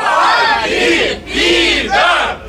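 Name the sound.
audience shouting in unison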